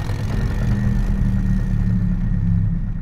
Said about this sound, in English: It was just Janis, waiting while the rumble of the engine shook the ground at her feet.